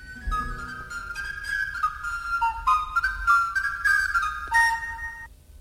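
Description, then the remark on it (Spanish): A flute plays a bright, warbling run of trills and quick leaps, imitating a canary's song, clear over a low hum of accompaniment for several seconds. “Y vamos a escuchar el canario, que es el siguiente, mira.”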